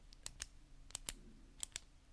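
A ballpoint pen clicked three times in quick down-and-up pairs, each a crisp, sharp snap, with short pauses between pairs amid otherwise quiet.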